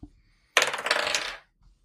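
New dice clatter across a hard table in a sudden burst of rattling taps as they are rolled for an investigation check, settling after about a second, with no one speaking.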